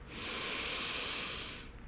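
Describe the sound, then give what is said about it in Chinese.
A single long, deep breath drawn in by a human voice acting out the big wolf outside the eldest pig's straw hut, before blowing it down; a steady airy rush that swells quickly, holds for over a second, then fades. No talking. “大野狼看猪大哥一直不肯出来，他只好深深的吸了一口气”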